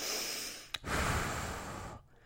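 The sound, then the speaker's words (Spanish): Two forceful rescue breaths blown in quick succession during CPR, broad and airy, separated by a brief sharp catch, fairly loud with no talking. “tapa la nariz, sopla fuerte, tiene que subir el pecho. ¿Sube? Sí, sigue. Dos respiraciones seguidas, rápido.”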